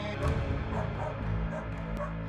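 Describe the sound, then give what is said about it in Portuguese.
Agitated neighbourhood dogs bark and yip without stopping in a steady, busy stretch, several sharp bursts overlapping against a dense, continuous background; no one speaks. “Os cães da vizinhança latiam sem parar, e se mantinham agitados como se estivessem prevendo algo ruim, ou algum tipo de ameaça.”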